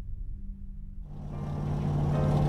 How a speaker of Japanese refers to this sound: 1952年3月1台の車がサンバーナディーノの14番街を走っている車内にはフロリダ州ジャクソンビルから来た2人の男がいる